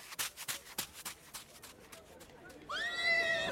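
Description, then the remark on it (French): A horse lets out a loud, quavering whinny near the end, following a run of sharp, irregular clacks and shuffling sounds in an echoey stable, a huge building housing around 800 horses with many people working there. “Il y a beaucoup de chevaux et, beaucoup de gens qui travaillent ici.”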